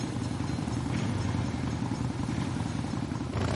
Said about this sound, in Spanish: Una moto circula por un campo cerca de la vía del tren.